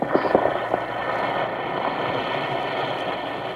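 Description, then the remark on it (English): A steady fizzing hiss of an Alka-Seltzer effervescent antacid tablet in water, with fine crackling bubbles, a few sharper pops at the start before it settles into an even effervescent rush. No voices. “Listen to it fizz.”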